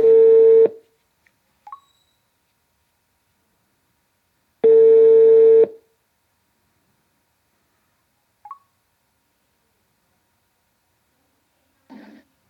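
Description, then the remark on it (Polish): Two long, loud ringback tones on a steady pitch, about a second each and spaced several seconds apart, with faint clicks between them and a soft brief sound at the end, as an outgoing phone call placed by voice command through Siri rings. “spróbuję zadzwonić anrufen. Wird angerufen.”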